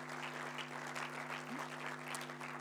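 A steady round of applause from a crowd, dense overlapping claps at an even, sustained level for a few seconds, with a constant low electrical hum underneath.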